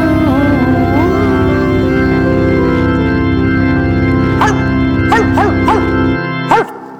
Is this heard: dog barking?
yes